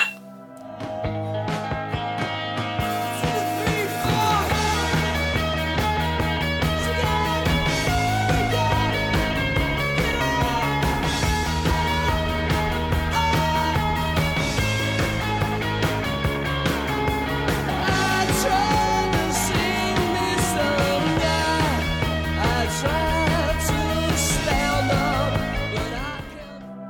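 A rock song from the early 1980s, a modest hit from a band's second album, plays at full volume throughout, with driving drums, electric guitars and bass in a dense, steady band mix, no talking over it, fading in at the start.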